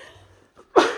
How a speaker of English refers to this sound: and and sneezes